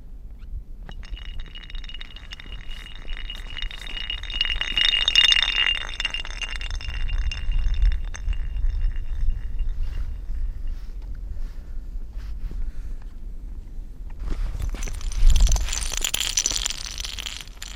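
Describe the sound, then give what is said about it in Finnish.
The ice sheet of the lake Luhtlampi sings as people play on it, with glassy, metallic pings and ringing zings that echo and fade, over low thumping rumbles, with a brighter burst of crackling chimes near the end. No voices. “Kuunnellaan lisää, mutta tässä vähän leikitään jäällä.”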